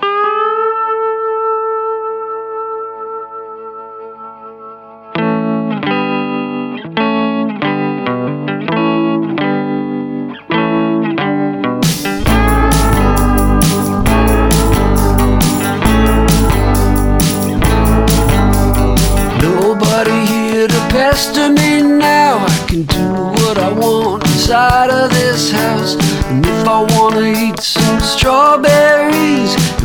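A band's song plays: a sustained distorted chord rings out, then choppy rhythmic guitar stabs enter before the full band crashes in with heavy drums and loud, dense distorted guitars.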